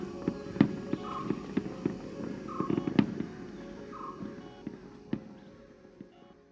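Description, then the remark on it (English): Fireworks bang and crackle at an island fiesta celebration, a few sharp cracks standing out at irregular intervals over a steady bed of smaller pops and a busy, murmuring background. “Imagine the smell of fiesta food and the sulfur of fireworks in island celebrations.”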